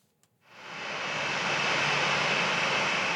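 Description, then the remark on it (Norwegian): A jet airplane taxiing toward its arrival gate after landing: its engines swell in after a brief quiet start, settling into a loud, steady roar with a high whine running through it. “Et jetfly på vei mot ankomstgate etter landing.”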